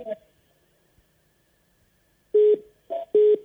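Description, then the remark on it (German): A mobile phone's call-waiting tone for an incoming call sounds as a short series of clear, steady, loud electronic beeps, after a brief bit of murmured voice and a quiet pause. “Okay, es klopft an. Wahrscheinlich klopft äh, bei mir im Handy an.”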